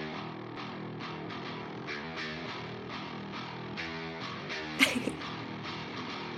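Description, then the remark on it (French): Heavy, distorted video game soundtrack music plays continuously, with dense rhythmic guitar-like chugging and a sharp, bright burst near the end; no voices. “Oui, Doom Eternal. Ah. Le chat avait trouvé. ah, Ah, bien, bien joué, celui-là. Je repasse l'original.”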